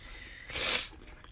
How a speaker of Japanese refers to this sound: 卵が固まってきたんで、ちょっと混ぜます。